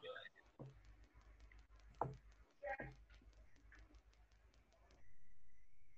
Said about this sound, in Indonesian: hujan nah itu nah itu